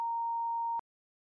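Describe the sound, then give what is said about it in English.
A single steady censorship bleep, a flat high-pitched tone held for just under a second, starting and stopping abruptly with small clicks, then silence. No voices are heard. “I, I, I can I, beep it out. I can beep it okay, out.”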